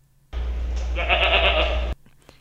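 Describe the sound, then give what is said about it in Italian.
A single loud goat bleat made while awaiting food, lasting about a second and a half, a strained wavering cry with a steady low drone, then it cuts off abruptly into quiet. “bene, allora questa è l'attesa di alimento.”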